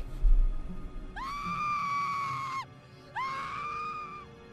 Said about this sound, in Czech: Když jsem uslyšel její křik